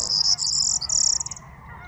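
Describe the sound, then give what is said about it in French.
Greater flamingos calling at 6:30 in the morning on 23 March 2019 at the sea dike in the Camargue, France: a bright, high-pitched continuous chatter that breaks into a quick run of pulsed notes and fades, over a low, steady murmur. No voices. “Ce matin, car il est 6h30 du matin, magnifique ambiance, avec ce bruit emproyé et le murmure des flamants roses.”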